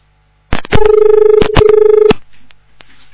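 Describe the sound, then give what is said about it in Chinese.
A loud, steady telephone line tone from a phone call that was not hung up properly hums for about a second and a half, broken by several sharp clicks at the start, middle and end, then fades into faint low noise. “好，电话大概没挂好，等等啊，再看一下。”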